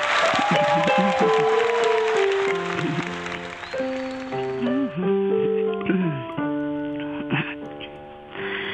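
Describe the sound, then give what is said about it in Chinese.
Audience applause welcoming the choir leader's wife to sing a song, a dense steady clatter of many hands clapping, strongest at the start and gradually thinning, over a tuneful instrumental melody that rises as the clapping fades. “掌声欢迎你唱一首歌，什么歌？”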